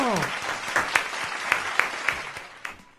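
A short burst of applause from a small group, dense clapping with a few sharper individual claps standing out, fading toward the end after about three seconds.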